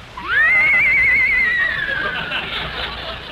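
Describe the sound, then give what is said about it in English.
A single loud horse whinny, rising sharply then holding a quavering, wavering pitch before trailing off, clear with no talking. “He even brought his horse.”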